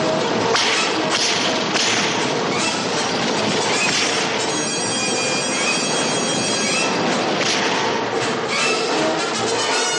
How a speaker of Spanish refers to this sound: La mujer se asusta al escuchar el ruido de una diligencia que cabalga por el bosque.